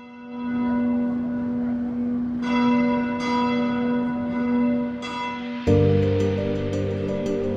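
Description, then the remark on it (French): A deep, heavy church bourdon bell, weighing about 3 tonnes and the largest bell in service in the diocese of Nanterre, booms with a long sustained hum, new strikes ringing out every second or so; near the end other bells join in, making a fuller, louder peal. “Notez que le bourdon, c'est-à-dire la cloche qui sonne la, note la plus grave, pèse à peu près 3 tonnes et que c'est euh, la plus grosse cloche qui est actuellement en service dans le diocèse de Nanterre.”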